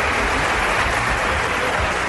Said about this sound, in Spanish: El señor Santiago Arias es nuevo jugador del Atlético de Madrid. ¡Aplaudidle!